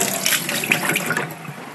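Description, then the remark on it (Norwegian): Running kitchen tap water splashes steadily for a couple of seconds, a bright hiss with small fluctuating gurgles as something is rinsed under the stream. “Skyller vi litt.”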